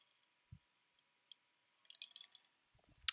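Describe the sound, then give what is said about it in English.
A quiet sip of coffee: a brief wet slurp in the middle, framed by a soft thump early on and a light clunk at the end, with no talking. “Let me just take a sip of my coffee”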